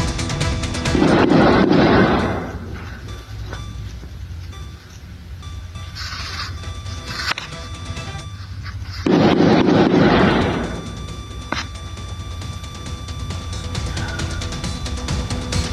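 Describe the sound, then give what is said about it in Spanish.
Gunfire in a shootout in the municipality of Río Verde, San Luis Potosí: two loud, sustained bursts of rapid shots separated by several seconds, with a few scattered sharp pops in between and a low background rumble throughout. No one speaks. “Así se escuchó esta balacera.”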